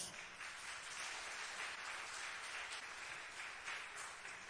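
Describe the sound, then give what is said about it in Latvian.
Sustained applause from a large church audience, given to God, fills the space: a dense, steady wash of many hands clapping at once, fairly soft, with no voices on top. “Vai mēs varam dot Dievam par tos aplausus?”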